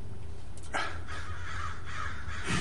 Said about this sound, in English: Um, you think they're grackles, but they're crows. But maybe you hear grackles where you are. That's possible also.